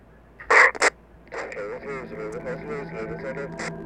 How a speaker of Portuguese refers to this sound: A única coisa que você vai ouvir de diferente é uma vinheta divulgando algum outro podcast afiliado da rede Vox Mojo. Vai ter também essa vinheta aqui no começo ou no meio dos episódios.